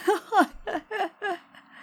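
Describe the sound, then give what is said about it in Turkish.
A pet cat at home retches to bring up a hairball: five rhythmic, strained voiced heaves in quick succession, moderately loud, with no talking over them. “E, bu konu öyle ki bizim kedi şey söyle e, tüy çıkarmak için sesler çıkarıyor.”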